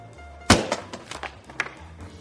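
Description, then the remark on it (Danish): A chip bag lying on a counter bursts with one sharp, loud pop as a father slams his hand down on it, followed by a few lighter crinkly rustles and ticks as the bag settles, with no voices. “Og posen den siger et højt pop, da faren han hammer sin hånd ned i den.”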